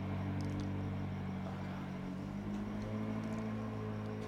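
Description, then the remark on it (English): A car engine drones steadily as it climbs a hill, a continuous low hum with a slight rise in pitch partway through, with no voices. “That's a car. It's going up. Yeah, it's going up the hill right now.”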